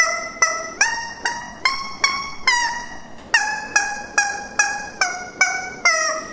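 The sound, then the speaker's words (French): A rubber chicken toy played like an instrument after a year of practice squawks out a melody from The Barber of Seville, about a dozen loud, nasal honks in a steady rhythm with shifting pitch, with no voices. “Et tiens, écoute-moi, après un an d'entraînement au poulet en plastique.”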